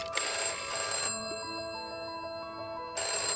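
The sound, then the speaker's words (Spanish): An old analog telephone bell rings loudly in two bursts, a rapid metallic jangle that stops for a short pause before starting again, with no voices. “Antes teníamos los teléfonos analógicos.”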